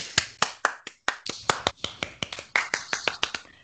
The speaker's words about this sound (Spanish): Es que es una reina y ya está, y la adoramos. Un aplauso.